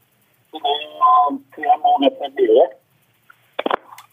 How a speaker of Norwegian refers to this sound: han ble svakere og svakere også på telefonen.